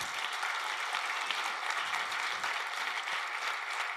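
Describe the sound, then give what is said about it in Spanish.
A church audience claps for Jesus steadily, a dense wash of many hands with no pauses, sustained and fairly loud throughout without any voices standing out. “puede dar un aplauso a Jesús por eso, iglesia?”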